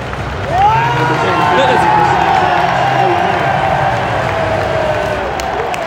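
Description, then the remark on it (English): A large stadium crowd at a football match roars steadily as the team lineup is read out, a dense wash of cheering voices with a rising collective shout early on that swells and holds loud throughout. “No, that cheer is not for Douglas Tank.”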